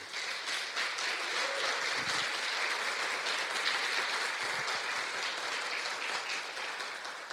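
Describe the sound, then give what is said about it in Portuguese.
An audience applauds for Jesus during a sermon, with steady, dense clapping that holds at an even level throughout, a broad wash of many hands with no voices rising above it. “Aplausos para Jesus.”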